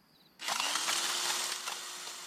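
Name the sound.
power drill whirring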